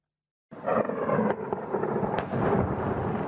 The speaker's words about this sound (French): Le bruit régulier des explosions Voici ce qu'entendent tous les jours les derniers habitants de Mariupol qui n'ont pas pu ou ne veulent pas évacuer.